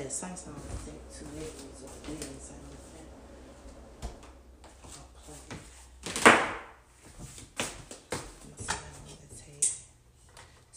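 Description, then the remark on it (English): Cooking pots clank and bang, with one loud metallic crash midway and several lighter knocks scattered after it, while a voice talks faintly in the background. “Sorry, I know it be loud when I be banging on the pots.”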